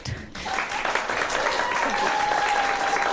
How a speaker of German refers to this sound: Wie geht es mit dem Applaus? Ist es ein kleiner Warm-up? Also zum Beispiel, wenn die Gäste gleich auf die Bühne kommen, könntet ihr schon mal testen, wie das klingt.